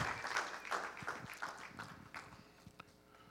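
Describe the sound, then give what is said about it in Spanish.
A crowd claps for Christ during a sermon for a few seconds, a quick patter of many hands that starts fairly full and thins out as it goes, with no talking over it. “Dele un aplauso a Cristo.”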